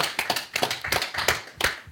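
A crowd applauds with dense, steady clapping that fills the whole moment, many hands overlapping into a continuous patter, moderately loud and close, with no talking over it.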